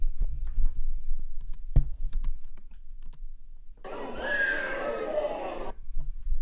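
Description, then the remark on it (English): In footage recorded at a workplace, a baby's shrill scream rises in the background for about two seconds, after a stretch of scattered clicking and tapping; no one talks. “You hear the that baby screaming in the background.”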